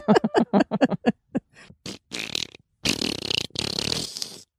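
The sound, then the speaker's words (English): A person blows a series of wet, sputtering fart noises with their mouth, starting with quick rapid bursts and ending in longer, louder, noisy raspberries, with no talking. “I think a lot of people would find your farting from your mouth very entertaining.”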